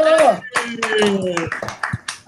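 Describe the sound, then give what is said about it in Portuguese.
A short burst of hand clapping, a handful of sharp, irregular claps given as a salute to everyone watching a live stream of the Corredores channel, mixed in with a steady humming voice or tonal sound that runs underneath throughout. “Salve de palmas oh. para todo mundo.”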